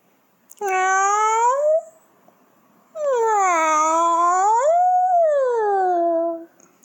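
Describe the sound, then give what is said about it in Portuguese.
A cat meows twice, loud: a short rising cry, a pause, then a long drawn-out meow that swells and falls in pitch. No one speaks. “Fiquei sem nada. Só com só com esse gato.”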